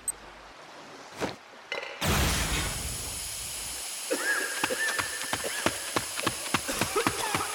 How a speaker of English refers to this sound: Cover your mouth with your shirt. As soon as this thing goes off, I'm going in. I'll let you know when it's safe to follow. When what goes off? The smoke bomb from my watch.